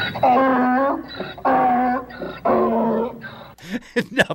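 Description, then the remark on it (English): A donkey (jackass) brays loudly in three long, harsh honking bursts with short gaps between, followed by a few brief squeaky, wheezing gasps. “of the jackass sound.”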